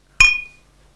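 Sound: beer bottles clinking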